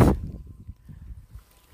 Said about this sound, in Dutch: En het gaat nu even heel hard waaien.